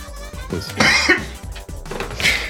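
Someone coughs a couple of times into a show microphone, a harsh, breathy burst followed by a second, weaker cough, with no talking in between.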